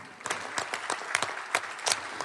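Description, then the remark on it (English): A small audience claps steadily to welcome a speaker, the sharp hand claps overlapping in an uneven patter at moderate volume with no voices. “Let's give him a hand.”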